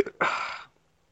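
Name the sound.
burp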